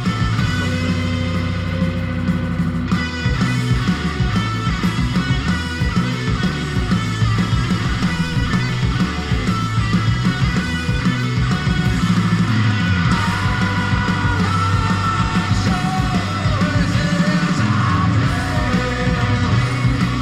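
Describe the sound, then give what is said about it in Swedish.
A stoner rock song plays loudly and steadily for the whole stretch, with thick, distorted guitars over a heavy, rumbling bass and a driving beat. No one talks over it. “Stoner kör vi.”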